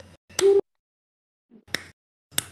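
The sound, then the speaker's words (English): A few sharp, distorted hand claps at uneven intervals, the first loud and clipped with a harsh buzzing smear, the later ones crisp and slightly softer, with no talking. “This is the what? most distorted clap I feel.”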